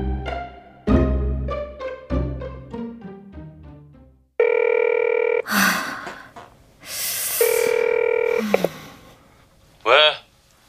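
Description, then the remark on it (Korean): A phone rings with a melodic electronic ringtone, a run of descending notes followed by sustained buzzing tones with brief breathy sounds in between, fairly loud. “왜 전화했는데?”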